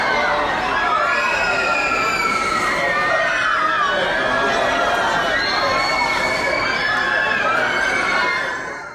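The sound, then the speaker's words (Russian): Many people scream together on a high amusement park ride in loud, sustained, high-pitched wails that rise and fall continuously, with the shrieking overlapping throughout. “Ты кричи за меня тогда, ты кричи за двоих.”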